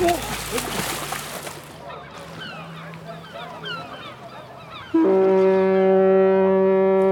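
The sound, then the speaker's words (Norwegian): A Hurtigruten coastal express ship's horn sounds one loud, sustained, steady blast that begins partway through and continues to the end, preceded by busy chattering bird calls and harbour background noise. “Lyden av Hurtigruta vil alltid bety noe helt spesielt”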